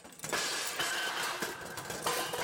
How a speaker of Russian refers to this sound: Забрался братец-кот на плиту, смотрит, жбан с молоком висит. Он потянулся за жбаном и уронил.